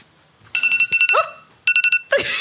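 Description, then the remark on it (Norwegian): A one-minute timer alarm rings in loud, rapid electronic beeps, sounding in two quick bursts separated by a short pause, with no one speaking. “Der var det ett minutt.”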